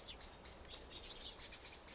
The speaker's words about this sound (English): You try that with me, just to be with this sound of the birds on this recording. Let the sound be a part of you.